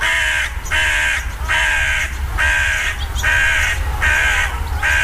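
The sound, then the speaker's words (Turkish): A carrion crow gives a steady series of harsh, loud caws, about six calls in a regular rhythm, with no one talking. “Ama bu karga deyip geçtiğimiz tür İstanbul'da bir leş kargası.”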